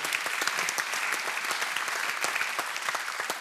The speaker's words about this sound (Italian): E adesso un regista che è stato anche conduttore di Hollywood Party, è stato un grandissimo critico e poi è stato il regista dei film più belli di Francesco Nuti al quale io direi di dedicare un applauso.